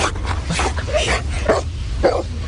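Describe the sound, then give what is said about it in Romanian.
A dog whimpers and gives short, strained yelps in a repeating pattern over a steady low background rumble. “Așa că petardele și artificiile de revelion sunt o adevărată tortură pentru câini și pisici, după cum spun proprietarii lor.”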